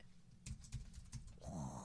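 household object, typing on a keyboard

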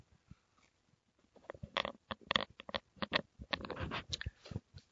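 food or drink, sipping coffee

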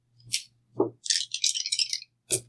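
household object, dice being rolled

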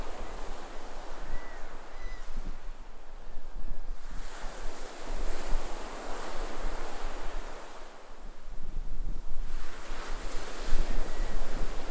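nature, distant ocean waves

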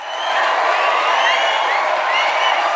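crowd, applause and cheering

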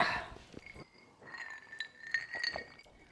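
household object, glasses clinking

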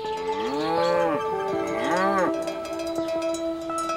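animal, cows mooing

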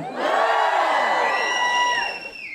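crowd, audience cheering

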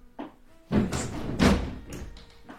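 household object, door being shut

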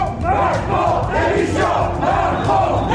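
crowd, protest crowd chanting

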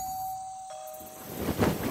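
household object, doorbell ding-dong

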